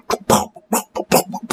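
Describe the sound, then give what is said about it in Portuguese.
A voice mimics an odd synthesizer sound from the start of a song, where the riff drops, with a quick run of six or so rhythmic, breathy, throaty bursts, fairly loud, with no other sounds around it. “Tem um som muito estranho de sintetizador nessa música de antes também.”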